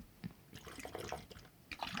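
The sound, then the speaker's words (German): Water glugs and splashes from a tilted bottle as someone drinks from it, tipping it too steeply, a burst of irregular gurgling pulses, with a brief pause before another quick gush near the end. “du trinkst da halt falsch raus. Du darfst es nicht so doll kippen.”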